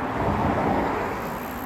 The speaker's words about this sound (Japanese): ちょっとね運転というか車が走ってたりするのでえー、っと耳障りになるかもしれないけど